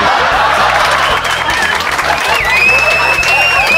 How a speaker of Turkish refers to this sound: Bir de, bir de gerçekten alkışlayanlar da var. Sadece hiç evlenmemiş bekar kadınlar gerçekten alkışlıyorlar.